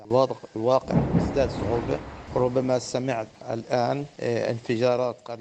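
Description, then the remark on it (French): A heavy, booming blast from an airstrike in Gaza that fell not far away rumbles low beneath a man talking over a phone line, on the fourth straight day of bombardment, fading as his speech continues. “Vous avez entendu la frappe Ce n'est pas tombé loin.”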